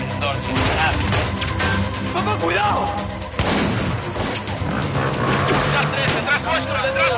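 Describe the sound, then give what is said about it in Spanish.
Rapid, overlapping gunfire from several weapons crackles loudly and almost nonstop as Denver, Moscow and Rio shoot at the police from the entrance, mixed with shouting voices, screaming hostages and chaotic crowd noise throughout. “Denver, Moscú y Río comienzan a disparar a la policía desde la entrada.”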